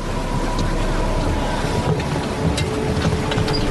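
A strong sea current, called the tide of Poseidon, churns steadily with gusting wind, a loud, continuous roar of rushing water and air, with faint creaks and splashes rising now and then.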